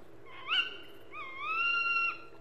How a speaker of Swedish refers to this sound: Din, dina ord ekar ut i skogen och det enda svaret du får är från en störd uggla